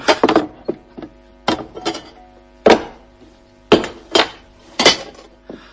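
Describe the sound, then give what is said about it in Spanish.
Glass and metal objects clatter and clink as they are tipped out of a heavy chest, in a series of sharp, bright bursts with short pauses between, some louder than others, with faint ringing tones lingering underneath. “Vaciaré el contenido.”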